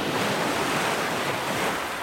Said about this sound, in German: Da erhoben sich im Meer haushohe Wellen